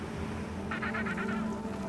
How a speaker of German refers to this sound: Nach einer halben Stunde Fahrt sehen wir sie. Eselspinguine.